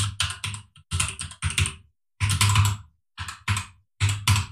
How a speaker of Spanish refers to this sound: ¿Se oye mucho el teclado, por cierto?